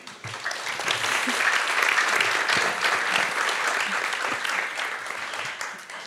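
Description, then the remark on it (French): Steady applause from an audience at a talk on writing audio fiction, welcoming writers of the Bababam fiction series Noises: a dense crackle of many hands clapping at once, sustained before tapering slightly at the end. “On peut peut-être les applaudir.”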